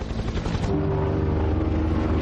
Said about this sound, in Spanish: El helicóptero sobrevuela el valle. La camilla y el hombre cuelgan del cable.